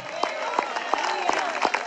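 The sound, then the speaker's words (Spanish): A church audience applauds for the Lord at the preacher's call, a steady wash of many hands with sharper claps recurring at a regular beat, fairly loud throughout, with faint voices mixed in. “Al Señor ese aplauso, déselo fuerte.”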